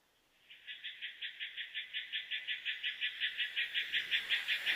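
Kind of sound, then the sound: animal, frogs croaking outside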